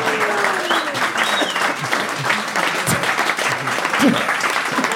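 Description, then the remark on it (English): An audience claps steadily for about five seconds, a dense, unbroken patter without building or swelling, with a few faint voices mixed into the applause. “the most reluctant clap I've ever heard in my life.”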